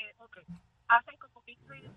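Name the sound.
muffled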